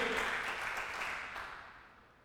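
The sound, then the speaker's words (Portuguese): A crowd bursts into dense, steady applause after a call for applause, many hands clapping at once in a bright crackling wash that gradually thins and fades by the end. No one speaks over it. “Dá um aplauso aí.”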